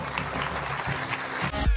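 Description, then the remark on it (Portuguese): An audience at a Hillsong church service claps steadily and densely after a prayer, a sustained wash of many hands applauding together, fairly loud, ending abruptly after a couple of seconds. “Será que podemos dar um grande aplauso?”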